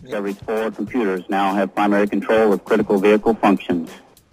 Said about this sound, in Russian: Вы услышали вы этого? Да. да. Ну вот это был рингтон. А там есть это маленький шаг что-то для человека, большой шаг для человека.